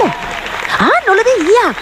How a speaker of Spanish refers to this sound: ¡Uy! ¡Ay! Espera, espera. ¿A quién están aplaudiendo?